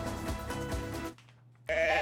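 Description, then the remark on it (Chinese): Sheep bleat in a long, wavering, harmonic cry that fills the first second, then fades to a quiet low hum before another loud bleat breaks in at the end. The sheep are among five used instead of mowers to graze the grass at Hampstead Heath, a park in north London, England. “绵羊妹妹叫，但这里可不是乡下，而是伦敦北部的公园汉普斯特德荒野。”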